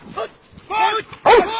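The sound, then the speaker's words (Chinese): A military dog barks three times in quick, uneven succession during bite training. The barks are sharp and harsh, and the last is the loudest. “扑咬训练，虽然训练中会有专用的训练装备来保护驻训员的安全，但真正面对军犬的进攻扑咬，需要一定的技巧，更需要有强大的勇气。”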